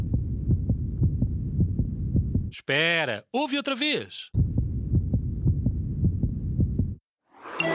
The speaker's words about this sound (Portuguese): E a resposta correta é o som do nosso coração a bater.